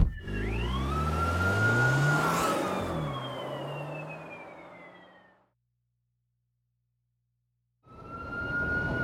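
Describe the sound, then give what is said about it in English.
A car engine roars loudly and races off in a chase, its whining pitch sliding as it fades into silence; after a short pause, another engine surges in at the very end. “Follow that car!”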